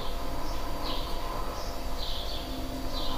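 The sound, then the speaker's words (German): Birds chirp in short repeated bursts outdoors, soft, over a steady background hiss of ambient noise. No one speaks. “Ich genieße gerade so die Vögel.”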